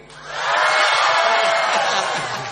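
A large audience shouts a song title together, as at the start of the show, in one loud, sustained burst of voices, swelling quickly and holding for about two seconds before easing slightly at the end.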